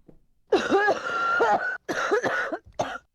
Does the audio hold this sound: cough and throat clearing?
yes